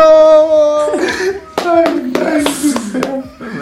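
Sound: applause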